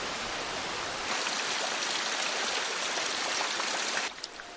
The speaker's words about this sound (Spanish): La lluvia azota el bosque.